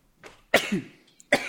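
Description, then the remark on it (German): A sneeze: a soft intake, then a sharp, explosive burst of breath, followed by a second short burst. No talking. “Gesundheit.”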